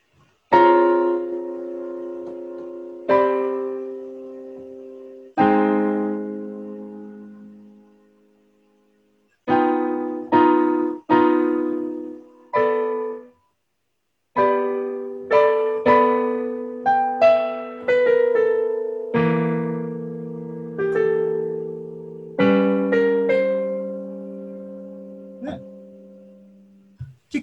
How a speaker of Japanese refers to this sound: ここ鍵盤あるんで、これ音聞こえるかどうかよくわかんないんだけど、コンピューターの僕のミキサーヤマハの AG なんだけど、これって普段はドライでマイクだけインプットするようになってるんだけど、そこに全部つながってる。これピアノ鳴ってる鳴ってますかあ、よかった。